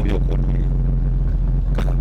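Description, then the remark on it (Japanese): An American car, bright red with a rear spoiler, drives away at the Toyota Automobile Museum, its engine a steady, deep rumbling hum that holds level throughout, while a person talks over it. “彼らがそうですねいいですねアメリカの車がねに”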